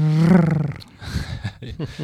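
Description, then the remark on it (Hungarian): A person imitates a cat's purr with a loud, low, rumbling voiced drone lasting under a second, followed by quieter, broken murmuring vocal sounds. “Volt egy nagyon fontos gondolatom, csak a dorombolás egy kicsit behallom őszintén, kizökkentett ebből a, ebből a gondolatból.”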